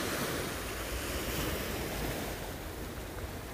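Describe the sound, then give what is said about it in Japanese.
Steady roar of sea waves washing onto a Shonan shore in Japan, continuous, with some wind buffeting the microphone and no voices. “はい海沿いに出ましためっちゃ綺麗だよ富士山がドーンとあってねいやなんかこの辺の海湘南なのにめっちゃ綺麗だねなんか僕の中の湘南の海ってすげえ汚いイメージがあるんだけど結構透明度ありますね”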